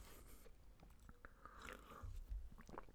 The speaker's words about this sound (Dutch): terwijl ik even slok nu van water